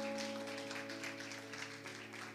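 An audience applauds Jesus in a steady, dense patter of clapping that holds for a few seconds, fairly soft, over a sustained low keyboard drone with no one speaking.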